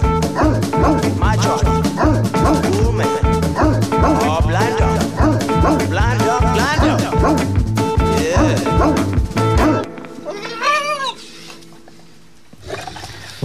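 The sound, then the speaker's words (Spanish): A 70-kilo dog barks over and over, sharp, amid dense rhythmic sound, then its owner mimics a whining, howling dog briefly before the sound drops to near silence. “el, pie final era mío, el resto era mi perro.”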